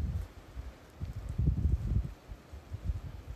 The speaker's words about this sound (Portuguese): Aqui está ventando, contato com a natureza.